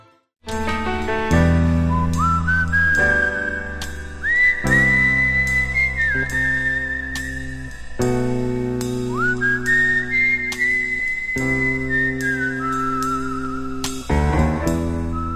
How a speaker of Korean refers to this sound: 심보는 그지같아도 노래는 신납니다. 나나나나 하는 부분이 아주 중독성 있는 노래입니다. 미국 밴드죠.